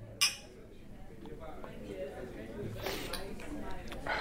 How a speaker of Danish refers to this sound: Nå, jamen, øh, så skål. Ja, skål på det, du. Ja, skål.